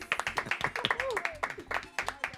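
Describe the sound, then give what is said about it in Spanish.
Applause for the Típico Head Radio Show, with steady, brisk clapping and sharp, rhythmic slaps running through the whole moment, while voices talk and laugh over it. “Un aplauso para ellos.”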